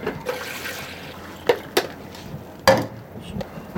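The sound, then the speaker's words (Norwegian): Water sloshes inside a machine, with a few short splashy bursts and knocks over a steady low background hiss. “Har vi litt vann i denne maskinen?”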